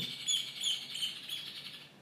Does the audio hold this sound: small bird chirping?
yes